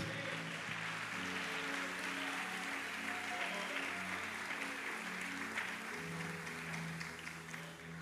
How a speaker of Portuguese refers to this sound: Aplauda o Senhor.